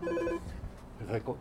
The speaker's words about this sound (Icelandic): Það sé einhver hérna. Ja, ja. Það er dingla.